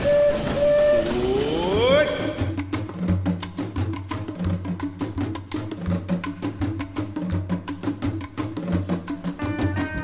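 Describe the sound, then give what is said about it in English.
A train whistle sounds and bends upward in pitch, then a steady, rhythmic chugging picks up with a low rumble underneath as the Disneyland Limited train of the Disneyland railroad pulls away on a grand circle tour of the Magic Kingdom, loud. “But uh, uh, let's get on the railroad right now.”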